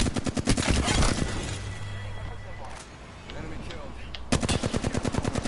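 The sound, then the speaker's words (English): Rapid bursts of video game gunfire, a fast rattling automatic stream at the start and again near the end, with a quieter stretch of muffled game noise in between. “that was gunshots. I thought I heard footsteps”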